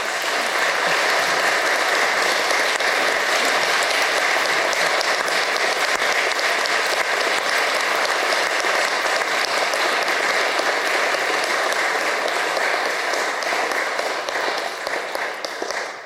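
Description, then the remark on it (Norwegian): Sustained audience applause for a speaker, a dense, steady wash of many hands clapping at full volume for about sixteen seconds before tapering off slightly at the end. No one speaks over it. “Nå må dere gi ham en skikkelig applaus.”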